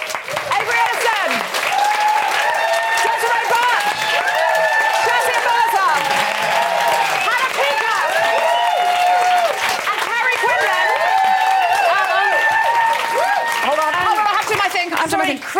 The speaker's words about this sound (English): so I just wanted to hu- give everyone a huge round of applause for coming.